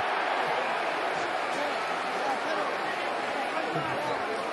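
A large QPR football crowd, at a match against West Ham, shouts in a loud, sustained roar appealing for handball after a cross, a dense wall of many voices that holds steady for several seconds without easing.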